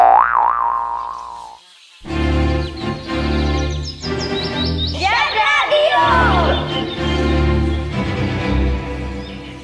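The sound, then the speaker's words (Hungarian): A singing saw plays a wavering, warbling tone with heavy vibrato, then continues over a loud, steady musical accompaniment, its eerie gliding pitch sliding up and down through the rest of the piece. “A műsorszám éneklő fűrész megjelenítés tartalmazott.”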